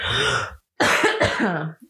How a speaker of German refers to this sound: Warte, ich muss einmal ganz kurz husten.